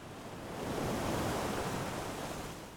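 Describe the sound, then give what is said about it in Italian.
A single wave washes onto a shore of the English Channel, a soft broad rush of surf that swells and then slowly recedes, steady, with no voices. “Più precisamente sulle rive del canale della Manica, in un'area incontaminata, nella convinzione che l'aria di mare e la natura sarebbero state sicuramente più salubri del fumo e delle ciminiere di Londra.”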